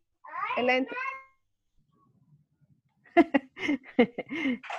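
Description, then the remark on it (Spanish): A young child, the speaker's son, chatters in high-pitched short bursts, then after a brief pause more animated child vocalizing follows, moderately loud, with no adult talk over it. “Espérate que está mi hijo ah”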